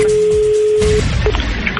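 telephone busy tone

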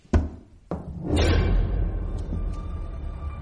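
knocking on a door

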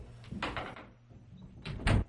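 door opening and closing

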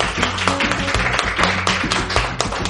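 applause

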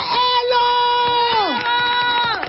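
audience applause and cheering

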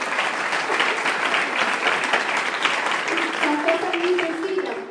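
audience applause

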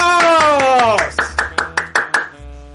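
applause

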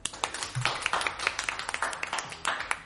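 applause

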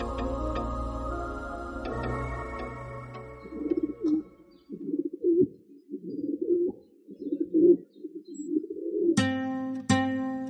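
pigeons cooing

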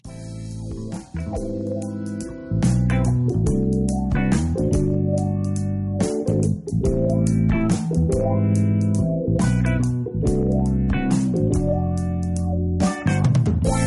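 song playing

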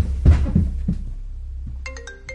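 gunshots

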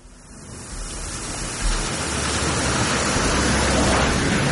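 rain falling

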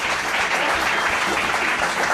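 applause

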